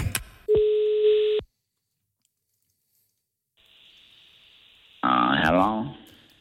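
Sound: telephone call ringing tone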